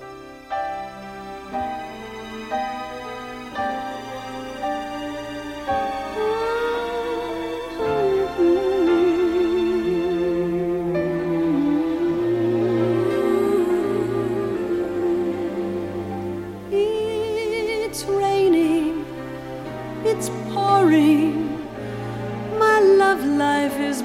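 pop song duet playing

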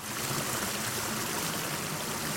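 flowing river water

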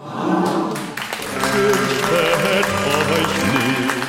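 applause sound effect

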